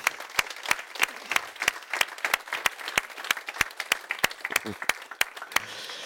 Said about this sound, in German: Und wir wollen den Menschen jetzt bitte sehr einen kraftvollen liebevollen, freundlichen Applaus geben, bitte.